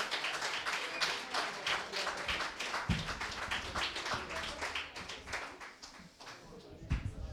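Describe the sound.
A crowd applauds continuously, many hands clapping in a dense, steady patter for several seconds, with a few voices faintly mixed into the noise.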